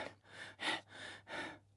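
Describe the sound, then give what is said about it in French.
Quick, breathy, out-of-breath panting: four rapid breaths in and out in an even rhythm, airy and fairly soft, with no talking. “Là, tout essoufflée, elle pose la noisette sur la table.”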